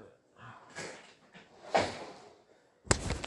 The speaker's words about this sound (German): Gesundheit, Mann.